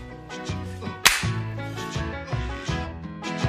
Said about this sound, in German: Nee, warte, 3, 2, 1, klatsch.